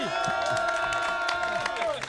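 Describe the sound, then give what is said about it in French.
An audience applauding, a dense patter of many hands clapping at once, mixed with crowd voices and a sustained tone running underneath for the whole couple of seconds. “Euh, ouais, on applaudit”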